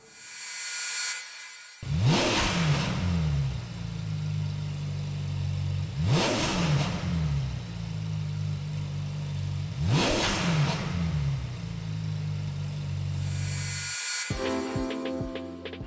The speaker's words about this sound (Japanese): フェラーリの歴史で自然吸気 V8 エンジンを搭載した最後のモデル458スペチアーレ・アペルタ世界限定499台という大変貴重なサウンドをお楽しみください。